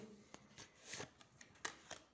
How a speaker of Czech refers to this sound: Já tahám ještě další karty.